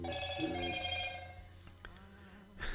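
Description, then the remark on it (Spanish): A phone's message notification rings out in bright, sustained electronic tones that shift pitch over a couple of seconds, fairly loud, then ends in a brief noisy burst, as messages keep arriving. “Siguen llegando mensajes”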